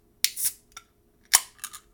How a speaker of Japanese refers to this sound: はい、じゃあ次にね、ビールをね、入れていきますね。ちょっとビールね、今から入れる、計量していきます。はい。じゃあ、いつも通り缶を開けます。